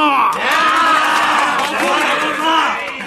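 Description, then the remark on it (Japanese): A large crowd cheers and shouts excitedly, many voices overlapping in a loud, continuous roar of approval that holds steady for a few seconds. “どうか拍手喝采は後にしていただきたい。”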